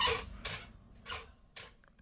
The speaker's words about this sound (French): Oui, c'est parce que les chaises grincent